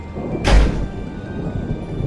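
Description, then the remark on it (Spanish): A bedroom door slams shut once, a loud bang with a deep boom that quickly fades into a steady low background hum. No one speaks. “Corrí hacia mi habitación y cerré la puerta.”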